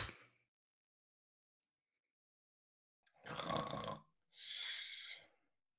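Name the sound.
imitated snoring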